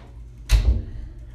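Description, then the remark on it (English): A single sharp clatter and thud as plastic Tupperware containers are put into a cabinet, with a brief rattle that fades quickly against a quiet background hum. “My mom just walked in and put Tupperware in my old cabinet.”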